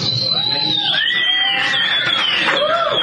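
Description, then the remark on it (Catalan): An audience applauds a participant representing the Jove Tècnic, clapping steadily for about three seconds, mixed with high, sliding cheers and whoops that rise and fall over the dense noise of the crowd. “Aplaudiments.”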